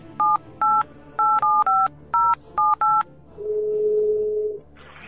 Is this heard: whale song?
no